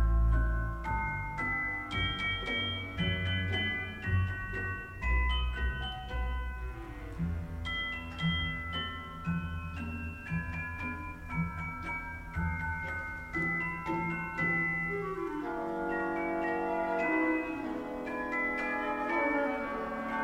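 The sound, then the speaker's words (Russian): Bright, ringing metallic notes struck one after another in a steady melody on orchestral bells (glockenspiel), an instrument that transposes two octaves up, sounding clear over a fuller, lower instrumental accompaniment, with no talking. “Интересно просто то, что вот этот инструмент, он транспонирует на две октавы вверх. Это мы про колокольчики сейчас.”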